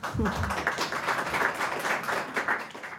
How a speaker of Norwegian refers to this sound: Forsamlingen på Grand Hotell i Oslo klapper etter den følelsesladde unnskyldningen fra Heidi Marie Krisnik, leder for Den norske forfatterforeninga.